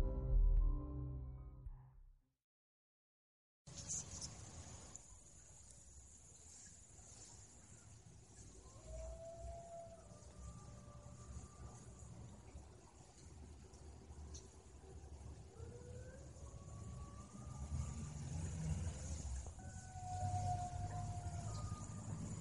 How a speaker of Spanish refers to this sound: Se escuchan los gritos de la llorona, creo, otra vez.